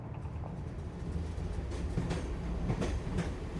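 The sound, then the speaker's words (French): An RER commuter train rumbles steadily along the rails, its low continuous roar punctuated by a few sharp metallic clacks and brief squeals from the wheels, fairly loud, with no voices. “l'homme prend le RER, e puis l'avion direction Katmandou pour y rejoindre Bikash.”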